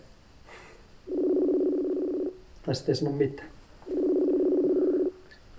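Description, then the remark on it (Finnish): Two long ringback tones from a phone call to Kenya played on speaker, each buzzing steadily for about a second, with a short burst of talking between them. “Mä laitan tota puhelun päälle, niin katsotaan miten käy.”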